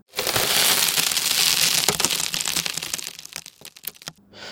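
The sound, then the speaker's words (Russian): A car windshield cracks after a coconut hits it: a dense burst of crunching, splintering glass fills the first couple of seconds, then thins into scattered sharp cracks and ticks that fade out, fairly loud. “К сожалению, один из них попал в лобовое стекло, и оно треснуло.”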